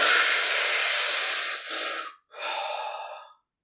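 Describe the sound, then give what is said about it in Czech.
A voice imitates a strong first hookah draw from a bowl packed with double apple tobacco: a long, forceful, airy draw lasting about two seconds, a brief pause, then a shorter second rush of breath, loud. “A teď nechal to nahřát a sedl si a první potah to byla jenom”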